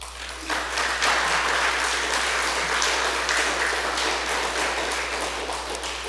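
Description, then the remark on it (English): An audience claps steadily and loudly for several seconds, giving themselves a big hand; a dense, even wash of many hands with no voices breaking through. “Now look around and give yourself a big hand of applause.”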